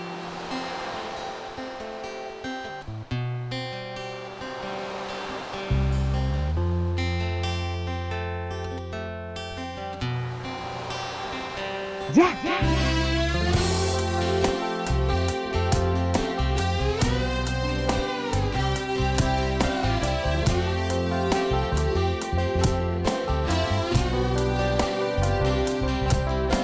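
An original ballad by a band plays at a steady volume, opening with soft sustained chords and a deep bass line before a steady drum beat and a singing voice, the band's bass player, come in partway through.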